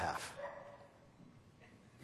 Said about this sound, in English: uh, well, you know that a dog barking is the ultimate sign.